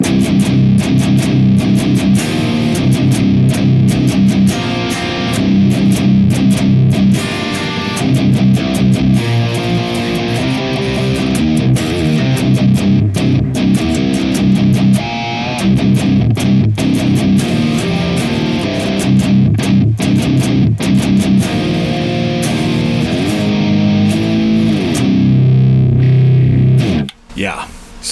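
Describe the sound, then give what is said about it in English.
Heavily distorted electric guitar with a Fuzz Imp Surprise distortion into an EL84 power tube section, through a Bogner 412 Ubershell 75 (4x12) cabinet, plays a loud, continuous chunky riff with thick low end and sustained chords, steady throughout before cutting off abruptly at the end. “which is going to be the Fuzz Imp Surprise distortion, uh, running EL84 power tube section, and then the Uber 75 is a Bogner 412 Ubershell 75 cabinet. Absolutely lovely.”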